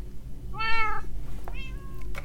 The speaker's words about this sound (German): wenigstens sind die Katzen da. Katze.